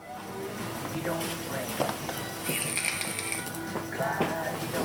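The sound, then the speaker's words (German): The first draw on an e-cigarette, taken a quarter hour after the liquid has soaked into the cotton wick: a rapid, irregular crackling and clicking sizzle with a brief high hiss partway through, over faint background murmuring. “Und nach einer Viertelstunde macht der … den ersten Zug.”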